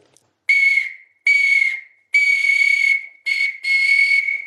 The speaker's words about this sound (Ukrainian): Ось знайшли в сусідньому селі, тут ключі великий, викопали, орали і вигорли. Тут, бачите, вушка, такі колись віра, але це тут свисток дуже цікавий.